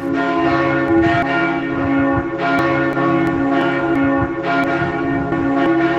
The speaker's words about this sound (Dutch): Natuurlijk heeft de kerk ook klokken. Ja, de klokken, daar hangt er eentje van 1800 eh, kilo en een van 900. En die luiden nog iedere keer.